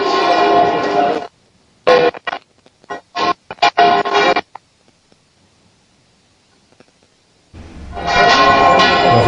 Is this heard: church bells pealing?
yes